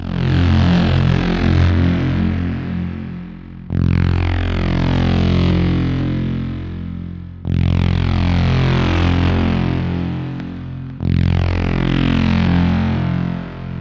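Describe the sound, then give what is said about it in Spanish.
A car engine accelerates hard at night, climbing in pitch through four gear shifts, each pull ending in a brief drop before the next surge. No voices. “decidieron montarse en el vehículo e ir al punto indicado”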